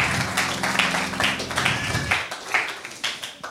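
An audience applauds with dense, steady clapping that continues throughout, with a low hum beneath it during the first couple of seconds. No one speaks.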